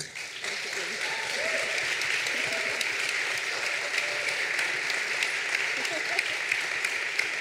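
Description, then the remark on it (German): Sustained audience applause for the guests at a live event at the Grünspan in Hamburg on 23 February, a dense steady wash of many hands clapping at even loudness for several seconds, with faint murmuring voices and a few whoops mixed underneath. “Einen fetten Applaus”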